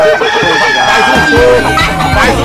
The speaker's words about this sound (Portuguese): você tá aí eh, com as galinhas.